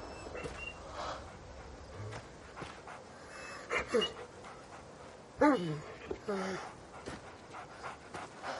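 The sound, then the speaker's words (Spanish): A wounded dog, bleeding from its belly and lying on the ground, pants heavily and steadily, broken by a few high, falling whimpers and whines partway through, sounding distressed. “El perro sangra por el vientre tirado en el suelo.”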